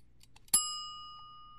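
A single bright bell chime rings out after a couple of faint clicks, marking the end of a segment; its clear metallic tone rings on and slowly fades over more than a second.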